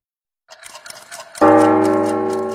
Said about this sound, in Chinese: 雪山上的大笨钟敲响了，这个钟声是提醒所有的圣诞老人们要赶紧到礼物工厂去领取小朋友们的圣诞礼物。